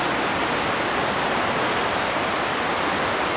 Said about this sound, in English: Listen to the sound of the river surging through the notch.